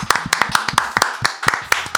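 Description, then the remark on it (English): A brief round of applause at the start of a show, congratulating two rappers on signing with Shady Aftermath: quick, sharp hand claps repeating rapidly and somewhat unevenly, like a small group clapping together, fairly loud with no voices over it. “Round just of applause.”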